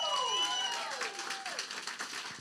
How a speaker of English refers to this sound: before we start this tradition, just give Jesus a round of applause. Come on